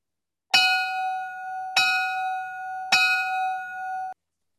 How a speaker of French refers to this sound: Donc, lançons ça en force à ce moment-là avec notre segment au son de la cloche.